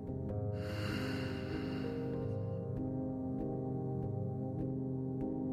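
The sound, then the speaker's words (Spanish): During a guided breathing exercise, one slow, airy breath swells for about two seconds and fades, a soft hiss riding over a steady, sustained musical drone that continues alone afterward. “Quédate un ratito en silencio escuchando únicamente el sonido de tu respiración.”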